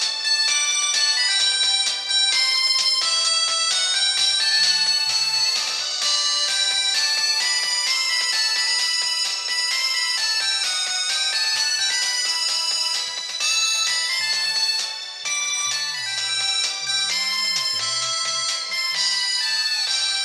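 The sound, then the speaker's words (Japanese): A bright, synthesized mobile phone ringtone (chaku-mero) version of the theme song of the TV show Ainori plays a continuous melody, loud, with layered electronic tones repeating in a steady rhythm for the full length, no voices present. “懐かしいなでね、もう本当にあの頃の着メロとかね、今着メロなんけないでしょだから今回ねちょっと着メロをね流してみたいと思います”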